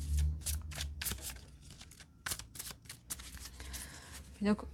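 A deck of tarot cards is shuffled during a tarot reading, a string of quick crisp riffling bursts in an uneven rhythm, with a sharper snap of cards near the end.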